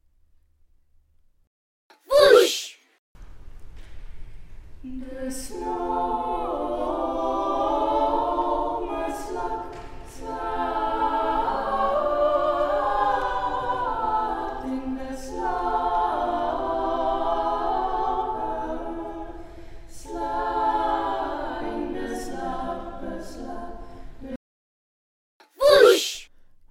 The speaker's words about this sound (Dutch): En componist Ivan Fischer heeft van dat versje weer een muziekstuk gemaakt dat is uitgevoerd door het Cobra Ensemble. Ik zal je een stukje laten horen.